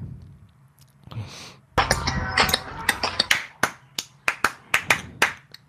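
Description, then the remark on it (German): A single person claps their hands in a loose flurry, then settles into a steady run of about ten sharp, crisp claps at an even, unhurried pace, with no talking. “Wieso klatschst du?”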